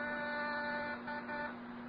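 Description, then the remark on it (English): An apartment doorbell rings at about 9 p.m. as one steady, sustained electric buzz lasting a couple of seconds, fairly loud, with no voices over it. “It's about 9 p.m. when I get my finger on the doorbell.”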